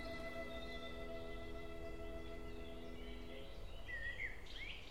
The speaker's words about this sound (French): Un merle traverse le jardin en criant, l'air très en colère, comme un reproche au jour qui s'apprête à disparaître.